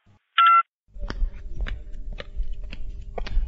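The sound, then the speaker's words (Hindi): A single short electronic phone beep sounds as a call is hung up, followed by a low line hum with a steady series of soft clicks ticking at regular intervals. “तब फोन हम रखियो होते रख”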